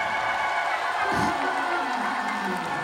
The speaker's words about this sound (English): That'd be a pretty good clap if you were at the opera, but we're not at the opera.